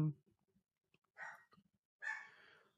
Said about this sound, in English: Anyway, dog barking in the back. Sorry about that.